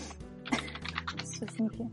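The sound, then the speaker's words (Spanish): Rapid, irregular clicking of keys on a computer keyboard, continuing under people talking in the background. “Alguien está tecleando. Lo puedo escuchar.”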